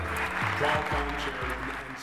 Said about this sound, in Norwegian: Her er redigert inn applaus når han sier 'or a CEO', men egentlig så ble visst hele rommet helt stille.